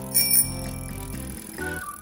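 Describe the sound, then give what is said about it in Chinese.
A bicycle rolls past a small river as its bell gives a quick bright ring near the start, followed by a steady whirring, tonal hum that shifts in pitch toward the end. No one speaks. “脚踏车经过小河，”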